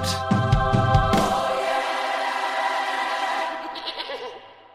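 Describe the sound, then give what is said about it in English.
A goat lets out a long, wavering bleat, loud, with a few quick vocal pulses at the start before the cry trails off over several seconds. “Um, all right, let's move on to the top, the winner the GOAT.”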